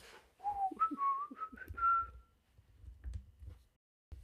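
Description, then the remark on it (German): A bottle gives off a thin, chirping whistle that wavers and climbs slightly in pitch for about two seconds, followed by soft low thumps and a brief click. “Meine Flasche zwitschert immer so komisch.”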